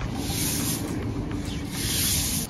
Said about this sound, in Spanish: Ese es el verdadero sonido de la mañana, que son las escobas quitando las hojas. Ese es el verdadero sonido de la mañana.